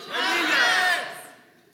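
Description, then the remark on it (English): An audience yells their favorite ice cream all at once on the count of three, in a loud, jumbled burst of overlapping voices, holding for about a second before trailing off. “Uh, I want you to yell uh, your favorite ice cream on the count of three, okay?”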